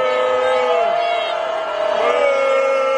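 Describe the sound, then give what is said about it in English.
A crowd at the congressional baseball game in Washington boos Joe Biden in a loud, sustained, droning wave of voices, with clapping mixed into the steady roar for the full few seconds. “They're mostly clapping.”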